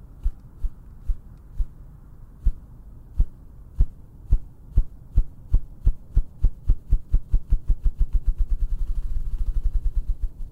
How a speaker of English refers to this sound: the low wavelength, of the ruffed grouse sounds could keep them safe